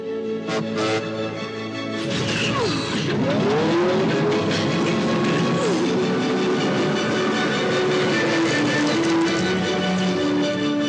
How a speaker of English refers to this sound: Hey, there's the train.